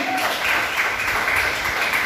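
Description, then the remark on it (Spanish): A crowd applauds themselves for being present, with steady, dense clapping that holds an even loudness for about two seconds, a bright rattling wash of many hands with no clear individual claps standing out. “Dense un aplauso ustedes mismos por estar aquí.”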